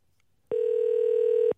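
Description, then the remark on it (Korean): A telephone ringback tone: one steady, mid-pitched buzzy tone holding for about a second at even loudness, then cutting off, with no talking, as a KBS broadcast places a call to a listener. “4994님 전화 걸어보겠습니다.”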